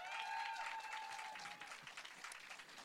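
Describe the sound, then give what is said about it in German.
A crowd claps steadily for a few seconds for the technical crew, a dense wash of applause with a faint whistle-like tone fading early on, loud throughout. “Einmal, einmal einen Applaus bitte für Technik,”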